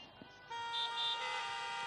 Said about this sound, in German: Und jetzt mal bitte die von euch hupen, die auf Amazon Prime Eurovision äh, den Will Ferrell Film gesehen haben.